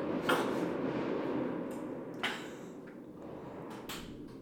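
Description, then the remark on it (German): Three loud, sharp explosive bangs from fireworks go off at irregular intervals outside, each ringing out briefly over a constant low rumble of background noise. “Das hört sich nicht an wie Feuerwerk. Das ist ein aggressives Feuerwerk.”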